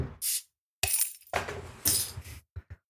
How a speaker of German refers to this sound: Dann kann ich eigentlich auch mal mein Bier aufmachen. Mach mal auf.